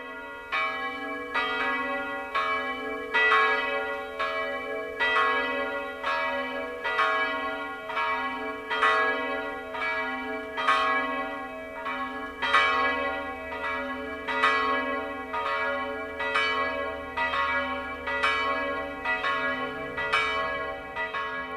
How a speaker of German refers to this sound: Es ist 12 Uhr. Das Mittagsläuten kommt heute aus der Filial- und Wallfahrtskirche Allerheiligen bei Warngau in Oberbayern. Michael Mannhardt hat die Kirche besucht, die beiden Glocken in Schwung gebracht und auch aufgenommen.